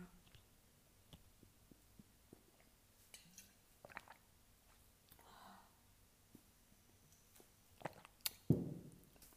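Quiet drinking of water: soft sips and swallows, scattered small mouth clicks and a breath, ending with a louder gulp or exhale, with no talking.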